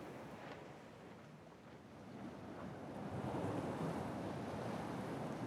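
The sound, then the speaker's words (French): Ocean waves break on a shore in a continuous rushing wash that swells louder partway through, with some wind noise and no voices. “T'entends les vagues”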